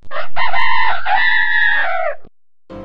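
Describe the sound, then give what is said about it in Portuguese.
A rooster, Mateu, lets out one loud crow over a farm loudspeaker as an alarm signal, a long strident cock-a-doodle-doo lasting about two seconds, followed by a short pause and a brief burst of noise. “Eis que de repente, no meio daquela cantoria e risadas, Mateu começa a agitar suas asas e corre para o alto-falante da fazenda e dá o sinal de alerta.”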